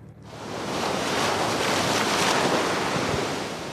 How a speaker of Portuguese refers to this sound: Por esta altura, na Figueira da Foz, o mar está agitado, mas esperam-se boas ondas